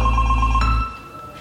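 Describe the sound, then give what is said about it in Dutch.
A short electronic telephone-style ringtone jingle for a radio phone-in messages segment, with steady tonal beeps and a low sustained hum, cutting off partway through and fading to quiet, no voices. “Gaan we dan eh, toch naar de berichtjes Doe nog een ehm, keer de jingle dan even.”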